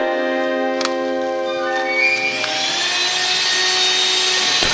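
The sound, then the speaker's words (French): Vacuum cleaners and a floor polisher, played in the concerto for vacuum cleaner and floor polisher, also known as the Grand Grand Overture, performed at the Hoffnung Festival from 1956. They drone together in a loud, sustained chord of humming tones, a brief clatter early on, then a motor whine rising and brightening steadily; no one speaks. “Oui, parce que ce que je t'ai fait écouter à l'instant, le concerto pour aspirateur et cireuse, est aussi connu sous le nom de Grand Grand Overture, la grande grande ouverture, et a été repris dans le cadre du Hofnung Festival dès 1956.”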